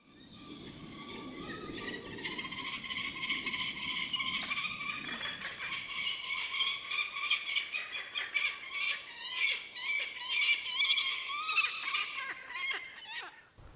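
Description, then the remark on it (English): A peregrine falcon gives a long run of harsh, creaking and wailing calls, repeated rapidly, over a faint low rumble of wind early on, with no talking. “At nesting sites, they give some distinctive calls um, described as creaking and wailing.”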